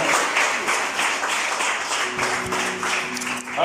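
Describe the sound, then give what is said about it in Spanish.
An audience applauds for Jesus Christ during a morning service, a dense wash of many hands clapping for several seconds, with a sustained low musical tone joining in partway through. “Denle un aplauso a Cristo Jesús, por favor, esta mañana.”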